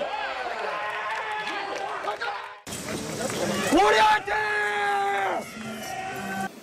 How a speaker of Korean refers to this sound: 피말리는 접전이 펼쳐진 일본과의 4강전에서도 파이팅은 계속됐습니다. 한일전 승리 후 포효 소리는 더욱 크게 메아리 쳤습니다.